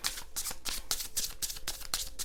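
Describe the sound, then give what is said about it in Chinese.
Tarot cards being shuffled during a tarot reading in a steady series of quick papery riffles, about nine crisp bursts in a regular rhythm over a low background hum, with no voices. “我先把神諭卡放旁边，我们先来抽塔罗牌的部分哈。”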